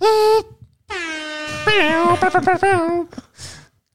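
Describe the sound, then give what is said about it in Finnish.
A voice blasts out a loud, nasal imitation of an air horn: one short honk, then a longer wavering blare with choppy pulses, followed by a breathy exhale. “niin, semmoinen Airhorn ääni puuttuu vaan tosta.”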